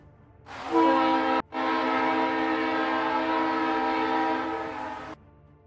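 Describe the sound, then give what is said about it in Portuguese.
A loud, sustained train horn blows in two blasts, a short one followed by a long steady tone of about four seconds, rich in harmonics, with no one speaking. “Vocês novamente escutam o trem apitando.”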